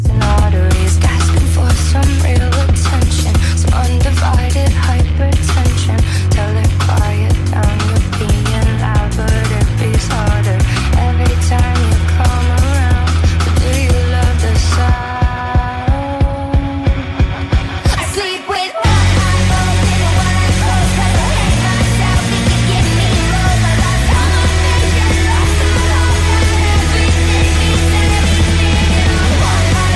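A pop song plays loudly with no talking over it: a full, steady mix with heavy bass, and a brief breakdown midway where the low end drops out before the full arrangement returns.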